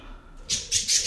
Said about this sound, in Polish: O, właśnie mi tutaj przeleciały nad głową. Mam dwie papugi, które strasznie tutaj mi będą dzisiaj mm, hałasować.